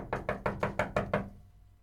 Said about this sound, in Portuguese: Eu vi essa propaganda com um vídeo. Chega o bacana na sua casa, batem na porta.